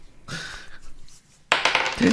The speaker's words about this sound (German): Kommen wir jetzt endlich zum Würfeln. Würfeln.